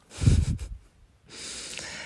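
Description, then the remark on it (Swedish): A single snore from a woman: a low rattling snort on the intake, a short pause, then a long breathy exhale hissing out. No one speaks. “Nej men gud vad hon snarkar.”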